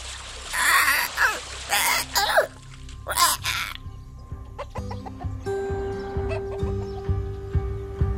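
A rooster being swept along by a river current squawks and crows frantically in distress, its voice trembling, in several loud, harsh bursts, with splashing water underneath, then the cries fade as soft musical tones take over.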